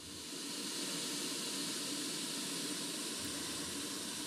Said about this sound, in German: Ja, und was Sie hier hört im Hintergrund, das sind die Motoren eines Flugzeugs.